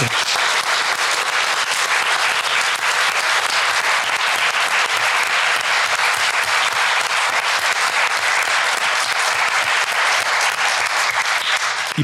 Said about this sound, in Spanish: Para toda la gente que tuvo que ver con la aprobación de la ley Olimpia, pero especialmente para Olimpia Coral Melo, creo que mandamos un aplauso con mucho amor y reconocimiento.